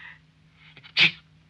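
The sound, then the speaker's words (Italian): A single sharp sneeze bursts out after a brief quick inhale, loud, standing alone against a quiet background hum. “Salute.”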